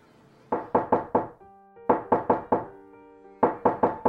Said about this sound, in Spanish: atiendes a la puerta que suena despertándote de tu autocompasión.